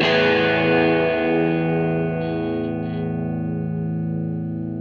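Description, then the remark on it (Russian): A single distorted electric guitar chord rings out at the end of a song and sustains, its bright overtones slowly dimming while the body of the chord holds loud and steady with no other sounds. “Песня начинается и заканчивается двумя очень похожими звуками, затухающим а, гитарным аккордом.”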